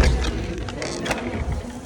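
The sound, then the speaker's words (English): A door being opened: a short run of clattering, mechanical latch and handle noises with a couple of sharper clicks over a steady low rumble, no voices. “opening a door.”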